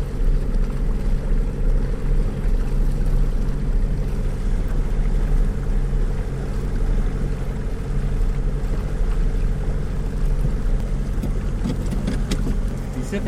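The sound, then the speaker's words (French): An outboard boat motor drones steadily and loudly up close, a constant low rumble with a buzzing hum that holds an even pitch for the whole stretch, no voices. “Ça en est quasiment dangereux pour mon moteur.”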